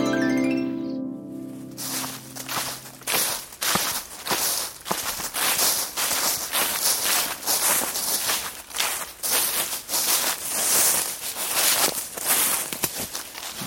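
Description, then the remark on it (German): Steady footsteps crunch and rustle through dry fallen leaves on a forest hiking trail, fairly loud, with a brief tonal chime fading at the start before the walking takes over. “raschel nicht so laut hier.”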